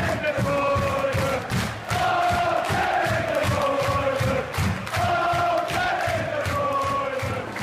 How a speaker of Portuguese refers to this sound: Uma outra coisa também que chamou atenção pelo lado ruim é que aquela musiquinha do Kevin De Bruyne que a gente ouve na TV é insuportável. O, a torcida do City não para de cantar essa música o tempo todo.